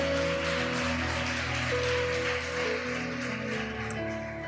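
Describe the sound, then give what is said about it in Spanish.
An audience claps loudly and steadily for several seconds, a dense wash of hand claps layered over sustained, held keyboard chords playing underneath. “Dale un fuerte aplauso.”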